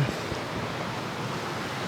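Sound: flowing stream water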